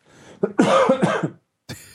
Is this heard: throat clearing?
yes